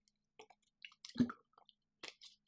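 Someone takes a sip of water up close: soft wet lip clicks and slurping, a single louder gulp in the middle, then a few small mouth sounds, with no talking.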